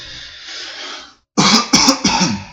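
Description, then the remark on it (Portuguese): A soft breathy hiss fades into a brief silence, then someone clears their throat in three loud, rapid, rough bursts. No one speaks. “Para você naquele estado, eu continuo com o pigarro.”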